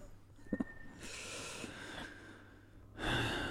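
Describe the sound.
A voice imitates an old man snoring like a child: a couple of light, soft snorts, then long breathy inhales and exhales, fairly quiet, with no talking.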